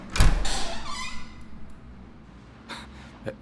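Footsteps, then a sharp knock or latch click as an apartment door on a fifth floor slides and scrapes open with a brief squeak, followed by a couple of soft thuds. Nobody speaks.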